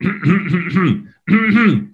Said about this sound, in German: wenn jemand sich anfängt zu räuspern in einem Vortrag, in einer Präsentation, ja. der Räuspern kommt dann noch, wird noch von Nervosität gefordert, äh, ja. gefördert dann macht er das meistens immer öfter.